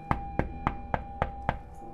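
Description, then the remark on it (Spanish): Six loud, sharp knocks on the window of a house, struck in a steady, evenly spaced rhythm, with no voices present. “Toqué muy fuerte la ventana.”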